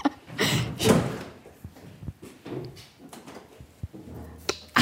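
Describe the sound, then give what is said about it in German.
A locked door to a compartment holding coffins is opened with a scrape and a few sharp knocks and thuds, followed by shuffling movement and another bump near the end. “Soll ich die Tür aufmachen?”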